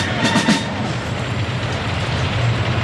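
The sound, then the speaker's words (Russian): Heavy engines of a military parade's mechanized column, with World War II-era combat vehicles and modern weapons, rumble as it enters Red Square in Moscow, a steady, dense low roar with a few brief rattling bursts near the start; no voices. “Подгул моторов на Красную площадь входят парадные расчеты механизированной колонны.”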